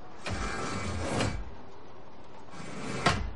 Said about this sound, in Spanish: Izan se acerca a la puerta blindada. Izan mira atento alrededor. Sembene abre el ventanuco.